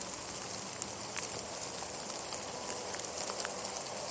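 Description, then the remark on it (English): Steady rain from a passing rain cloud hisses evenly throughout, with scattered small droplet ticks and pattering on top, moderately loud, with no voices. “I can't tell if that's a streak of sun shining through the rain coming at me or if that's just a really big column of rain coming at me.”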